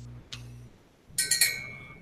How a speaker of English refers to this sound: Uh, What's that bell? Ah, I don't know. Everybody else heard a bell, right? my cat's like picking around on my desk, so probably heard something. okay. it's uh, it reminded me of like church where they ring the bell